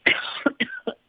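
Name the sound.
sneeze or cough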